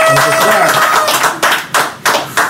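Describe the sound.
A burst of dense, close-up applause that thins out into a few separate, sharp hand claps toward the end, with some voices mixed faintly into the noise.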